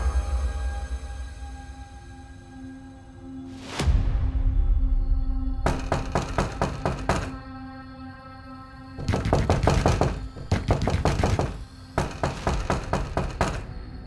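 Several bursts of rapid, hard knocking on a door, each a quick volley of sharp raps, separated by short pauses over a low, steady background hum. The knocks are loud and close.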